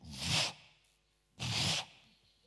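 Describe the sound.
A voice imitates an angry buffalo bull snorting: two forceful, breathy huffs about a second apart, loud, with no speech.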